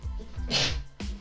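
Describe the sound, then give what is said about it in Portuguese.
A single sharp sneeze bursts out, a short hissy explosion of air, with low murmuring voice sounds before and after it. “Saúde”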